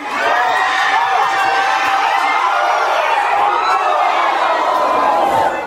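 A packed dining room, the 'comedor de los milagros', of people shouting and cheering together as the ball nears Hugo Lloris's goal in a football match of Argentina, a dense, loud roar of many overlapping voices that holds steady without a break for several seconds.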